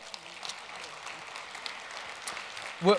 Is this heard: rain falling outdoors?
no